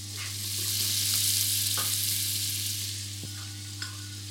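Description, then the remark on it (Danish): Butter and dry fish sizzle steadily in a frying pan over high heat with a drop of oil while the pan is shaken slightly, a continuous crackling hiss with a few soft pops and clicks, under a low constant hum and with no one speaking. “smør, jeg bruger til at stage min fisk, det får hele smag. Kan du høre det?”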